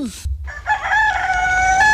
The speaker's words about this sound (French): Ça, c'est le chant du coq.